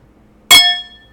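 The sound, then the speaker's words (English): A single bright clink of drinking glasses tapping together, fairly loud, its high ringing tone hanging briefly before fading into quiet. “I'm really glad we learned about that glass thing that we cannot be drinking to the very top.”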